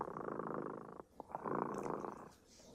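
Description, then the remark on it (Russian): A cat named Dremota purrs, a steady rumbling drone in two long cycles with a brief pause between breaths, fairly loud and with no voices. “Слышите, кот Дремота запел свою песенку.”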